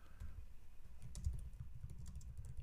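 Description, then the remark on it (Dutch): Rapid, irregular typing on a computer keyboard, a steady patter of soft key clicks, with no voices over it. “Ik moet het eronder schrijven, want dit is echt iets dat ik zeg maar random erbij doe.”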